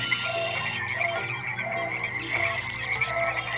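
A dense nighttime chorus of small frogs croaking and crickets trilling, steady and continuous with overlapping pulsing calls, moderately loud, with no voices.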